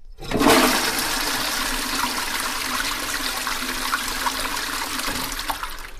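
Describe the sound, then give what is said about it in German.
A toilet flushes, starting with a sudden loud rush of water that holds steady as a broad hissing swirl and gurgle for several seconds, with no voices. “Natürlich habe ich eine Idee und ich glaube, ihr seid auch darauf gekommen, es ist eine Toilettenspülung”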